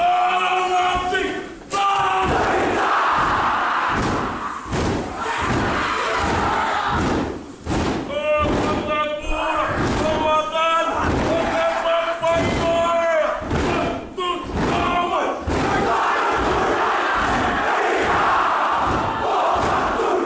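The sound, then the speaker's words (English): A large group of voices chants a fierce, rhythmic haka war cry in unison as a tribute to a beloved teacher who was leaving, punctuated by heavy stomps and slaps, with drawn-out shouted calls rising over the pounding beat, loud throughout. “WAR CRY CHALLENGE : INTERNATIONAL EDITION”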